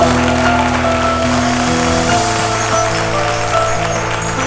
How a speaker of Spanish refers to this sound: Vamos, dale un aplauso a la presencia de Dios.